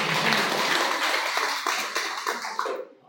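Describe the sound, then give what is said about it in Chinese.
An audience of students breaks into dense, steady applause, many hands clapping loudly at once in a continuous wash of sound that fades out abruptly near the end. “来，我们的掌声给我们金总”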